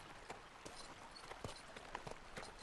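Horse hooves clip-clop in a steady, slightly uneven stream of sharp knocks over a soft, continuous background hiss, fairly quiet and with no one talking.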